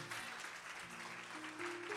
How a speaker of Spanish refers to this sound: Que le dé un aplauso al Señor. Vamos.